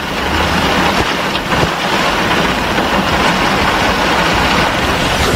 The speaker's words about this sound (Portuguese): Essa é a chuva que nós estamos enfrentando nessa manhã. Bo... Forte, não para.